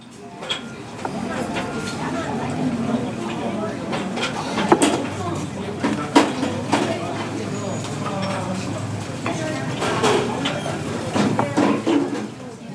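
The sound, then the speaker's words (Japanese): Ambience of Roppongi Station on the Toei Oedo Line layered with the busy Iseya Sohonten yakitori restaurant: a steady low rumble and hum under indistinct crowd chatter, with scattered clinks and clatters rising now and then, dense throughout. “というわけで今回やってみたのは憂鬱な都営大江戸線六本木駅とハッピーな伊勢屋総本店を混ぜるっていうちょっと不思議な試みでしたいかがだったでしょうか”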